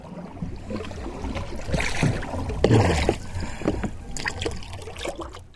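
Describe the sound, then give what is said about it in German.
Water sloshes and laps against the hull of a small fishing boat as a fisherman in the water hands a net of Banggai cardinalfish up to a colleague in the boat, with irregular splashes and a steady low rumble of movement, no voices. “Unter Wasser treibt der Fischer mit dem Ruder den Schwarm ins Netz, zieht es zusammen und reicht es seinem Kollegen nach oben ins Boot.”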